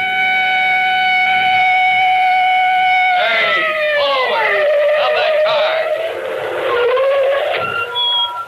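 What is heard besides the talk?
police car siren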